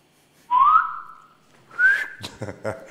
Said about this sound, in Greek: Προσπαθούσα να μαζέψει αέρα να σφυρίξει.